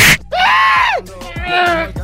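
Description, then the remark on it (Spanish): A little devil sound effect: a squeaky, high-pitched cartoonish scream rises and falls in a long arching wail, followed by a second wavering shriek, loud and strained, with a brief hiss at the start. “Oye, el diablito ya no grita igual”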